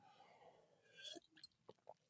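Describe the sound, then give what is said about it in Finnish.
Quiet drinking sounds of a long gulp of sparkling water from an office machine: a short wet swallow followed by a few soft mouth clicks and smacks, with no talking. “Otin tuossa pitkän hörppäyksen vettä. Oli, oli muuten hyvää vissyvettä tuosta tota, niin, konttorin koneesta.”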